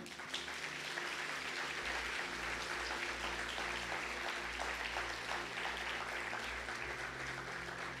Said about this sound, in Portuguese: Você poderia dar uma salva de palmas para o Senhor?